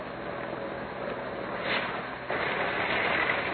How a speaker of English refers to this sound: It began on a London street. A dark sedan drove slowly into the stream of traffic. There are three young men in it. One seems quite a bit younger than the other. Even so, the car continues to cruise along.